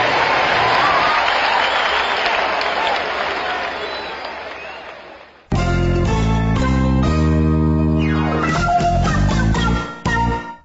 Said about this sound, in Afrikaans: Baie dankie. Staan op en klap vir hulle hande. Yeah!